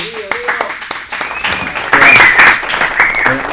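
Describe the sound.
A burst of warm applause from a small crowd, steady clapping that swells louder midway, with some cheering voices and chatter mixed in.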